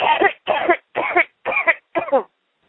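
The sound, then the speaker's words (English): A person, told to take a deep breath and cough, coughs five times in a steady, evenly spaced series, each cough loud and harsh, with short silent gaps between them. “Take a deep breath now and just cough for me.”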